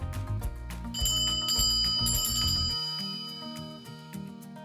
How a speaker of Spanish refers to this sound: Campana.